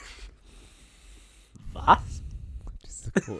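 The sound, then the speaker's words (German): Quiet breathing through the nose by people testing whether they inhale through one nostril, with a few audible sniffing inhales, one sharper and louder near the middle, against a soft hiss of faint breathy noise. “Die Leute hören uns einfach atmen, weil, weil wir wissen wollen, ob wir über ein Nasenohr, Nasenloch einatmen oder nicht.”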